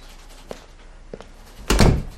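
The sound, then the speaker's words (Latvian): A door opens as a woman comes in: two small latch clicks a moment apart, then a louder, fuller thump and rustle as it swings, with no voices. “bet veras durvis, un viņa nāk pati.”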